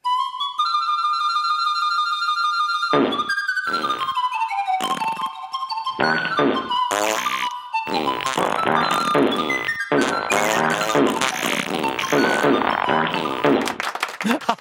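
A breathy, pan-flute-like melody opens alone, then gives way to a rapid series of loud, sputtering fart noises. The rasping bursts carry pitch and play on like a tune until the end.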